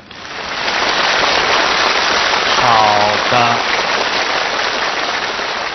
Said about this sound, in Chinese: 好了，又到了我们的打分时间了，朋友们，支持我的朋友们，请您把掌声响起来。